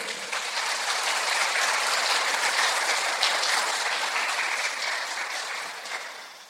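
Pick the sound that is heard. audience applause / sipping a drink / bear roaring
audience applause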